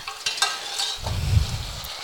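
A pan sizzles steadily while a utensil scrapes and stirs, then broth is poured in, producing a louder, bubbling hiss. Fairly loud, with no voices.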